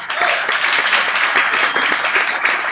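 Steady applause from an audience, a dense wash of many hands clapping at once, loud and sustained throughout with no pauses and no voices standing out.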